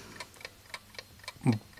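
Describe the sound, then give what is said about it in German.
A wind-up timer, wound by hand, ticks steadily at about four sharp, light clicks per second, fairly quiet, before a short voiced sound breaks in near the end. “Dann bist du bereit, offensichtlich, weil es tickt ja schon.”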